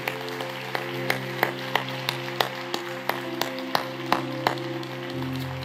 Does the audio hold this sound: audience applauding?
yes